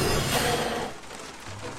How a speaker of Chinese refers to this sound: 画里正在下雨。